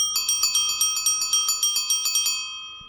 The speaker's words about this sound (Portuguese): A campainha assinala a chegada de um veículo especial, a cicloteca.